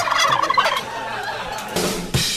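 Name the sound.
turkey gobbling sound effect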